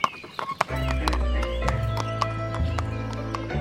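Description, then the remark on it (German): Hooves clop sharply on a hard floor in a stable a few times, then a horse lets out a long, loud whinny with a steady harmonic tone. “Schau mal, da vorne stehen, stehen lauter Pferde.”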